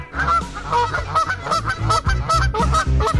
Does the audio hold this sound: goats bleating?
no